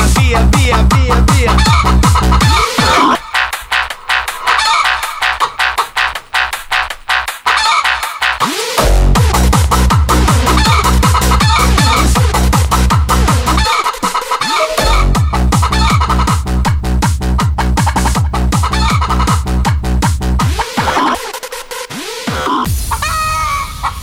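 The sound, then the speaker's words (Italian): A loud, pounding techno version of a clip of a hen being spanked, built from chopped hen clucks and squawks, looped rhythmically over a steady kick drum, with brief breakdowns where the beat drops out before slamming back in. “Numero uno su Spotify, la versione techno della gallina sculacciata”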